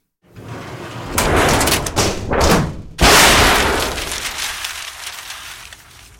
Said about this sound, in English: the messy clang of a handful of dead batteries into a steel dustbin.